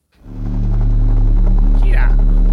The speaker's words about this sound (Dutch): Helikoptertje. Terminator begin.